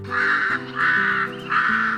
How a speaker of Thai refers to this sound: อีกาที่อยู่ตรงนั้นเห็นพอดี มันจึงร้องเสียงดังว่า พวกเรามาดูเร็ว นั้นตัวอะไรนะ่ะ